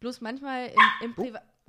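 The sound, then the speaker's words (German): A dog sitting beside the speaker lets out a single loud bark right into the microphone, cutting across a person who is talking; the speech continues briefly afterward. “Das war mein Hund, der gerade ähm, neben mir saß und gedacht hat, er könnte mir mal ins Mikro äh, bellen.”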